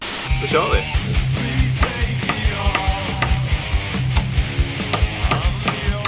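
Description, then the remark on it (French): A steady series of sharp knocks, roughly one or two per second, as an SM58 microphone is used to pound a nail during a durability test at a German music studio, fairly loud over a busy, muffled background. “Ah, ce que vous entendez, c'est le bruit euh, que fait un micro-chour SM58 en train d'enfoncer un clou un studio de musique allemand s'est amusé à faire subir des tests à ce micro pour voir euh, s'il marchait toujours bien.”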